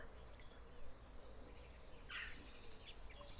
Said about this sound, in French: Les oiseaux chantent de concert